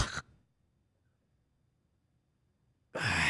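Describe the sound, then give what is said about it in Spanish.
A brief breath, then about three seconds of near silence, followed by a sudden, loud gasping intake of air, a person imitating someone who snores, stops breathing in their sleep and then gasps. “O sea, están roncando y se quedan así como...”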